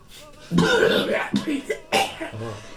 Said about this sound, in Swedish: Du eh, svaras av en ganska eh, slemmig hosta.